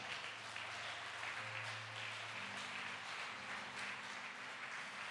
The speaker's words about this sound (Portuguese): Os meus inimigos não são problema eles são a plateia. Aplauda ele bem forte.